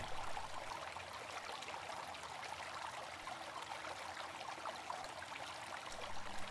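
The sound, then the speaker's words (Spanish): A steady, continuous babble of a flowing stream, with a soft, even rush of water running throughout at moderate volume, no voices or other sounds. “Imagina que estás sentado junto a la corriente en un día templado y soleado, observando cómo van flotando las hojas.”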